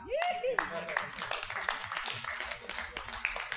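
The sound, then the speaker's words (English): Scattered audience applause with steady, overlapping claps of moderate loudness, and a brief rising vocal call rings out near the start. “you should be applauding over that.”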